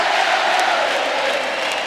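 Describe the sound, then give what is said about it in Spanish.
A large crowd in the Quinta Vergara amphitheater roars, applauds and cheers continuously for a comedian, a dense wall of voices, loud and sustained with a faint tonal chant rising within the noise. “Mira, Felo, toda la Quinta Vergara aplaudiéndote y reconociendo tu gran talento, tu trayectoria”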